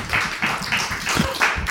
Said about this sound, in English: That's the first time I've got a round of applause at the matinee.